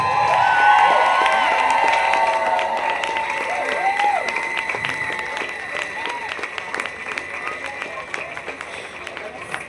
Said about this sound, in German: Ja, mal ein Applaus, The Power of Speaking Up.